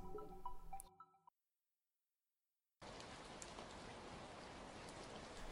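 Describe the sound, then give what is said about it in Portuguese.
Steady, dense rain falls outside, hissing continuously for the last few seconds, following a brief tonal musical passage and a moment of silence. No one speaks. “No seu quarto, enquanto a chuva cai lá fora”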